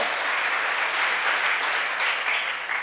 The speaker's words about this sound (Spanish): Un aplauso al Señor, porque el Señor, el Señor